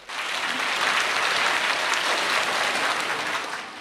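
Audience applause swells quickly and holds as a dense, steady wash of many hands clapping for several seconds, then tapers slightly at the end; no voices are heard.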